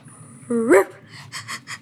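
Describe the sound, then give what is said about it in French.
A child's voice imitates a dog, Rover: one short rising whimper, then three or four quick, breathy pants in a steady rhythm, fairly loud. “Monsieur Yuri ne parlait jamais qu'à son chien, Rover, qui était d'ailleurs un peu sourd.”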